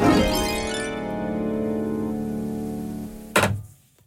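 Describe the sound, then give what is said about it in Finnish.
A wristwatch knocks against a hard surface with a sharp clack that leaves a long, ringing tone fading for about three seconds, then a second, duller knock ends it. No one speaks. “kolautin kelloni tähän.”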